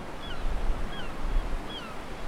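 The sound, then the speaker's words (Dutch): Sea waves wash steadily onto a beach at Katwijk in a soft, continuous rush that swells and eases with each surge. Three faint, high chirping calls drift over the surf. “Het begon allemaal voor mij in Katwijk bij de zee.”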